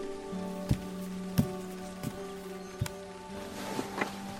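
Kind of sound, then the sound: nature, rain falling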